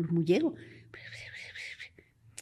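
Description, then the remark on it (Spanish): A voice mimics eerie, breathy murmuring, a rising vocal sweep followed by a stretch of hushed, hissy whisper-like sounds, fairly quiet, ending with a soft click. “Entonces ya me acerqué y dije, no, sí, salen las, murmullos, salen de aquí.”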